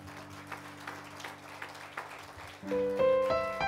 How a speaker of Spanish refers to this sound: Denle un fuerte aplauso al Rey.